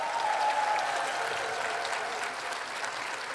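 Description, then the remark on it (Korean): A crowd applauds a brass ensemble after its performance, a dense wash of many hands clapping at a fairly even level for a few seconds, easing slightly toward the end. A faint tone lingers briefly at the start. “우리 방금 연주한 …에게 뜨거운 박수 한번 부탁드리겠습니다.”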